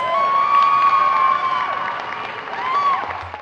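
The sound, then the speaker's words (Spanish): A crowd claps and cheers in a steady, dense wash of noise for a few seconds, with shrill whistles rising above it before the applause tails off. “¡Aplausos para las reinas!”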